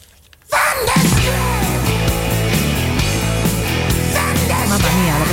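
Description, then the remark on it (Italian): After a brief silence, a loud, strained yell bursts out and is held for several seconds, raw, with a harsh, shifting pitch that never lets up. “sensazione su quest'urlo”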